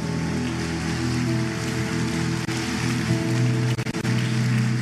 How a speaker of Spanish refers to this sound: Alguien da un fuerte aplauso en esta mañana, vamos.